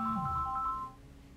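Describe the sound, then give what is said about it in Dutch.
A single telephone ringing tone as a phone call is placed: a steady electronic dual-pitched beep held for just under a second, then cutting off to a quiet line hiss. No one speaks. “Ik vind het allemaal heel vreemd, dus ik bel ACTA om te vragen hoe dat zit.”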